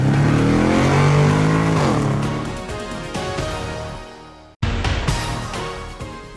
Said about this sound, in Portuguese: Sérgio engata a primeira e acelera.